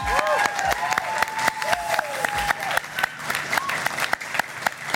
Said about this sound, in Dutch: mag een groot applaus